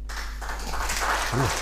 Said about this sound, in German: Zehn Applaus. Szenenapplaus. Wahre Worte, wahre Worte.